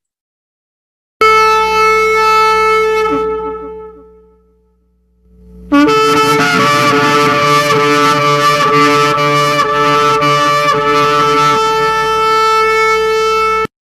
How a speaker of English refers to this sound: The powerful sound of the shofar is healing and it causes confusion in the enemy's camp. When blown, it clears the air around us.